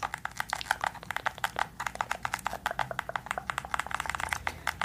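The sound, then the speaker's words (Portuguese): Quick, steady keystrokes clatter on a keyboard as the price of items is typed in, a continuous run of light clicks with brief uneven pauses and no one talking. “Então, eu vou colocar aqui o valor delas.”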